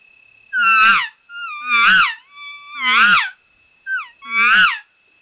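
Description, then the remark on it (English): A person imitates a cow elk estrus call: four loud, drawn-out whiny mews with a buzzy edge, evenly spaced, plus a short chirp before the last one. “And it has a buzz sound to it, and it sounds kinda of like this.”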